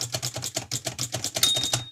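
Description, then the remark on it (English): A Perkins brailler's space key is pressed repeatedly, giving a steady run of about nine clacking mechanical thuds as the carriage steps along, with a faint thin high ring lingering at the end. “So that moves along as we're pressing the space.”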